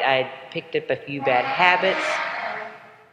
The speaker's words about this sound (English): I'm so sorry about that noise. There's construction all around me.